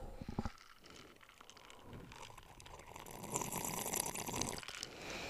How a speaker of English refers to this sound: Quit slurping. You did that on purpose, didn't you? I did. That's why I was looking at you when I did it.